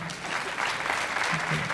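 An audience claps in a steady, dense patter of many hands for a couple of seconds, a bright crackling wash with no voices standing out.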